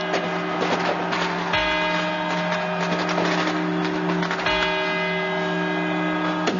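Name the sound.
clock tower quarter-hour chimes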